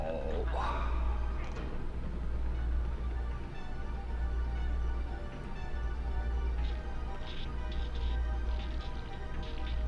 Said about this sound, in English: There we go again with that bizarre squirting sound. She's letting loose with a, uh, her, her death wail.